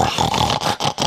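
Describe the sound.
A person imitates a pig, making a quick run of rough, snorting oinks in short nasal bursts separated by brief gaps, fairly loud with no speech.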